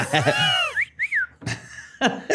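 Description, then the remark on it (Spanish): A person whistles two quick, bright chirps imitating a mongoose's call. Breathy laughter and vocal sounds surround the whistles, and it is fairly loud. “Pero además esto no es una mangosta normal, Pero sí les chiflaba y les hacía ruidos humanos.”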